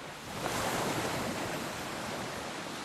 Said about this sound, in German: Max Faulkner machte einen Strandspaziergang, genoss den beruhigenden Klang der Wellen.